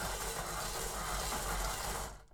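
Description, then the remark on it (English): A bingo machine whirs and whooshes steadily as it spins the numbered balls, a loud continuous rushing noise that cuts off abruptly at the end, with no voices. “Oh my god, our bingo machine is stage fright.”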